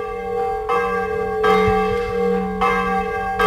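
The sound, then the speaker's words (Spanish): Large church bells in Spain, swung by bell-ringers who hang from them, ring out in a steady, overlapping peal, with strong strikes about once per second and a long resonant hum sustaining between them. No voices are heard. “Se trata de una forma de voltear las campanas en la que los campaneros literalmente se cuelgan de ellas para dibujar un lenguaje musical como el que oye.”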